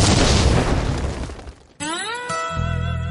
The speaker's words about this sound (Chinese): 下面马上进入到今天的生活大爆炸环节， 瞬间爆炸。